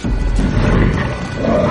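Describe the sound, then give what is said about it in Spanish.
A wolf snarls with rage, a loud, continuous deep growl that rumbles unbroken for under two seconds with no voices over it. “Su hocico contraído por un gruñido de rabia y sus amarillos ojos resplandecientes.”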